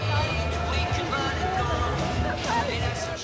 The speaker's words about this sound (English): What you're hearing there is a protest in Paris this afternoon.